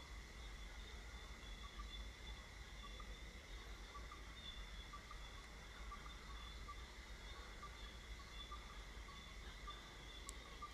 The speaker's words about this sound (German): In der Aufnahme Grillen zirpen und Frösche quaken?